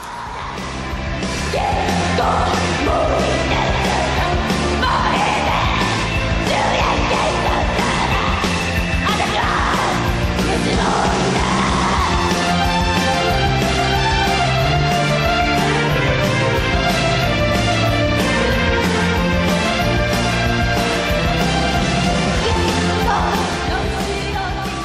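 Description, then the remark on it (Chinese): A loud, dense punk rock version of a Baroque classical piece, with screamed, raw, completely broken vocals over driving distorted guitars and pounding drums, sustained at full volume throughout. “呃，那它基本就是采用一种完全是这种嘶吼，整个声音都完全破掉的一种唱腔在唱，很有意思的一首歌，大家可以听一下。”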